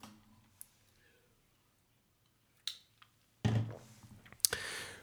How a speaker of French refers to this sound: Voilà, t'es prévenu, maintenant je bois ma petite gorgée d'eau et on démarre.